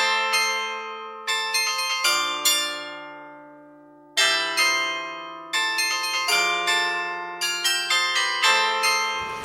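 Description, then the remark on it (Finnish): A bright, bell-like three-note audio logo jingle made by a sound company plays several times in slightly different versions, each chime ringing out and fading between phrases. No one speaks. “Musta tämä kuulostaa siltä, että sä soittanut kolme nuottia midi-tiedostolla ja sitten sä vaan vaihdat sitä niin instrumenttia siitä valikosta, koska niin mä tekisin.”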